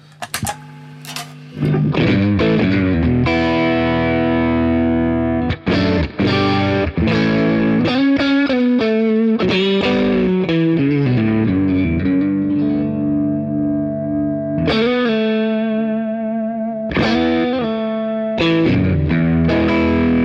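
Electric guitar played through a Tube Screamer overdrive pedal, loud, with sustained gritty chords and single notes ringing out in phrases, pausing briefly between them, with no talking.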